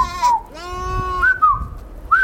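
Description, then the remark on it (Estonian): Goats and sheep bleat in overlapping, wavering cries, several calls in quick succession, some high and quavering, others lower, over a low crowd murmur of a busy livestock market where men move among the animals and trade them. “nii liiguvad nad loomade seas, kauplevad ning nende vestlusi saadab nende määgimine, kellest parajasti jutt käib”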